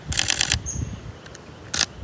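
A camera shutter fires in a quick burst of rapid clicks for about half a second, then after a pause a single crisp click follows; no voices are heard. A few photos are being taken on Cousin Island in the Seychelles.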